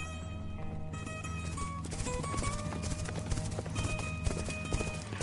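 Horses gallop with a steady, dense clip-clop of hooves, continuous throughout and growing louder, with a faint whinny and a background hum underneath.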